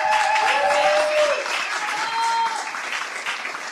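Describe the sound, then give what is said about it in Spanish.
An audience claps steadily for two Chilean sisters on a Radio Nacional program, a dense, loud patter of many hands that holds for a few seconds before easing off slightly, with a couple of brief whistle-like tones rising above it. “Aplauso acá a las hermanas chilenas.”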